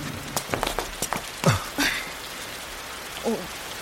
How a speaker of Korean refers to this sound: 근데 소나기가 아닌가 봐요. 멈출 기미가 안 보이네.